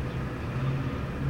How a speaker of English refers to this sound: I went ahead and opened up the uh, the window so you can kind of hear some of the sounds of Vancouver in the background.